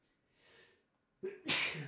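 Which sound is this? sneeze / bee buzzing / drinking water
sneeze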